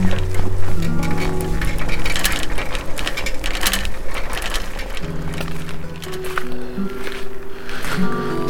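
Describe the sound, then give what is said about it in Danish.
A bicycle is wheeled along and parked at the end of a hill, its freewheel ratcheting in a steady, rapid ticking for several seconds, with a low rumbling hum underneath and no one talking. “Så har jeg parkeret cyklen op for enden af bakken her.”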